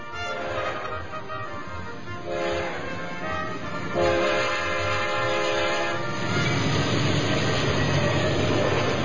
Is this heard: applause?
no